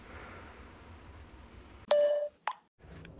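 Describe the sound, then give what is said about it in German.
A doorbell at a locked entrance door chimes once with a clear, bright electronic ding that rings for a moment, followed by a brief second blip, over a faint steady background hum. “Wir können klingeln.”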